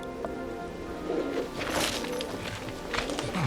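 Pigeons from a homing-pigeon breeding loft coo softly in a dovecote, in a few low, throaty bursts over a steady hissing background like light rain, with no voices.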